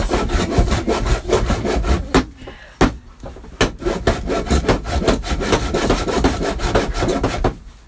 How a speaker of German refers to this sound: Ich säge jetzt hier gerade eine Kerbe rein.